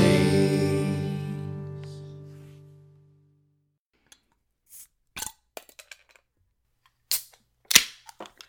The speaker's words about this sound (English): What'd you open over there? I opened a dogfish head pumpkin ale.